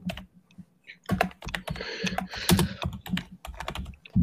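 Rapid, uneven clicking of keys on a computer keyboard, fairly loud, with bursts of fast typing and short pauses, no one speaking.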